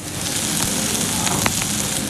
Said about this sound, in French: Ça crépite, hein, vous entendez bah, C'est les petites saucisses.